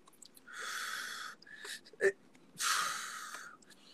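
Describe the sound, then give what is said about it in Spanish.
Two long, slow breaths, each a steady airy rush lasting about a second, separated by a short pause with a small mouth click. “Estoy, respirando porque, porque este, este episodio mm. está, está, digamos que me trae también cosas personales”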